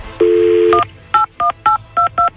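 A steady dial tone hums briefly, then a quick run of five or six touch-tone beeps as a phone number is punched in, each short dual-pitched blip evenly spaced. No one speaks.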